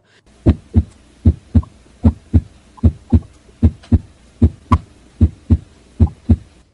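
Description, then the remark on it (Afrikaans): A steady, normal heartbeat with clear paired lub-dub thumps, the S1 and S2 heart sounds, low, repeating about six times at an even, relaxed pace with no voices. “Ek speel nou 'n insetsel van hoe 'n gewone normale hartklank. Dit wat ons ken as 'n lip dip.”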